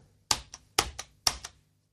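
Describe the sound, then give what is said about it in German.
Three crisp keystrokes on a computer keyboard, typing the letters A, U and S, each followed by a quieter release click, evenly spaced, with no voices. “Das Problem ist meiner Ansicht nach, dass auf dieser Tastatur A und S sich Klingt, relativ... hören sich wahnsinnig ähnlich an.”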